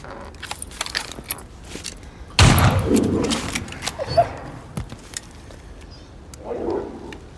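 A tiger lets out one sudden, loud roar that rumbles down into a lower growl, with scattered clicks and rustling before and after and a softer growl near the end.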